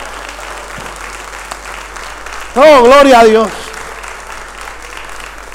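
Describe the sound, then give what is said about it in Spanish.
Steady, dense applause from an audience for the Holy Spirit fills the whole stretch, while a single voice rises over it midway with a loud, sung-out exclamation lasting about a second. “Alguien le puede dar un aplauso al Espíritu Santo.”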